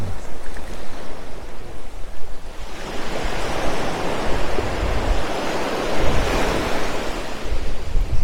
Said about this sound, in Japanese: 波音だけ流してます。